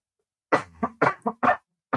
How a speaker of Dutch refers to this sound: heel hard hoesten.